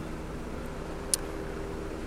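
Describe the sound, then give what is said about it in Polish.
A helicopter flies overhead, its steady low rotor-and-engine rumble filling the whole stretch, with one brief sharp click partway through and no voices. “A teraz to już w ogóle mam, mam połączenie, bo pewnie mnie słychać dobrze na mikrofonie, ale nade mną leci helikopter, przede mną stoi autobus.”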